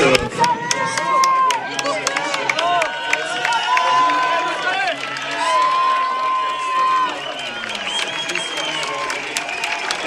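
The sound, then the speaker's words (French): A large crowd cheers and claps continuously as athletes enter the elite start corral of the Tour du Mont Blanc race, with whistles and scattered shouts rising over a dense roar of voices for the whole stretch. “Je vous mets quelques moments sonores de ce passage des athlètes pour leur entrée dans le SAS élite.”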